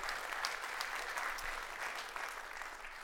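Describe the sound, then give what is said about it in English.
Steady audience applause for God's good work in people coming to Christ, a dense wash of many hands clapping at even loudness throughout, with scattered sharper claps popping out of the texture and no voices. “Yes, we can applaud God's good work”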